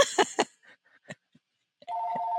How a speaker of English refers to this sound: And then the phone rings.